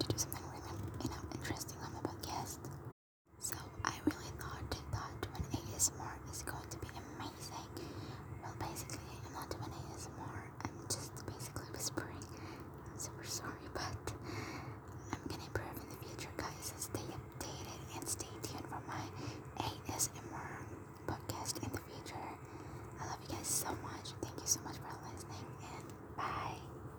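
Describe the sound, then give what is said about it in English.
Breathy ASMR-style whispering continues steadily for the whole stretch, soft and intimate, with one brief silent pause near the start and faint crackly mouth and rustling sounds mixed in; effects were added to make it sound creepier. “So yes guys, I really hope you enjoyed my ASMR.”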